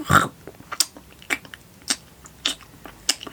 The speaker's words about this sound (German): schmatzt er sein Äpfelchen in sich hinein.